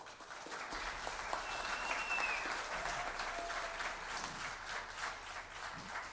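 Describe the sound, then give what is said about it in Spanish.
Sustained applause from a concert audience for the band's percussionist. A dense wash of many hands claps at steady volume throughout, with a faint whistle rising briefly in the middle. “Un aplauso, por favor,”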